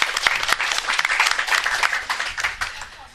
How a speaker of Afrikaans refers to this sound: Applaus